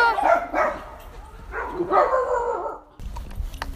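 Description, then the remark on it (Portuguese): A dog barks in two quick bursts of sharp, rapid barks, then the sound cuts to quieter outdoor background noise. “Mas, tal como as pessoas, há cães que não acham muita piada quando estranhos se aproximam.”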